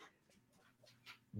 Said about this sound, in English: you can hear my dogs in the background, so that's awesome.